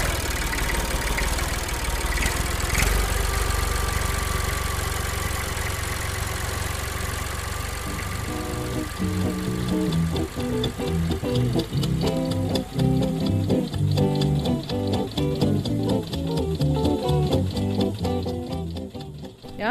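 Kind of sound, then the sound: vehicle, old tractor engine running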